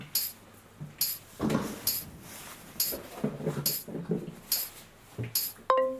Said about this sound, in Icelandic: Og þið heyrið þetta, þetta tamburinu hljóð því það ég sé á réttri leið.